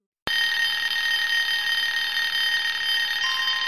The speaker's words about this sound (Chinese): 又是一阵电话铃声响起。李军来不及多想，火速的接起电话。